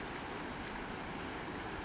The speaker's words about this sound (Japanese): はい、では川の音と焚き火の音とともに